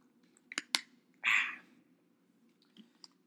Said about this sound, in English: Speaking of, I'm going to take a quick drink of water here.